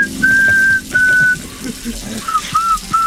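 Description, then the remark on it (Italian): A hairdresser in Toronto whistles a catchy pop tune at a client while cutting their hair: two long, steady high notes followed by a run of shorter, wavering ones, heard over a soft hiss like running water. “con la litosi che ama fischiare motivetti pop in faccia ai clienti mentre taglia loro i capelli.”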